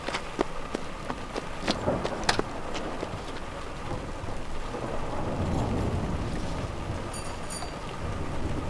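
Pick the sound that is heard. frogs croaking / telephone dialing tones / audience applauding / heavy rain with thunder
heavy rain with thunder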